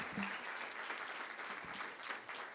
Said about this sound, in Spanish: Vamos, denle un aplauso fuerte a Jesús.